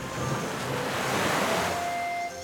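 Steady rushing of sea waves as a large animal jumps into the sea, a broad washing surf that swells slightly midway and holds loud throughout, with no voices.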